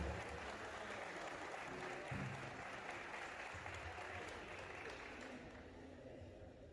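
A crowd claps steadily, a dense wash of many hands that holds strong throughout, tapering only slightly toward the end. Faint voices murmur beneath the clapping.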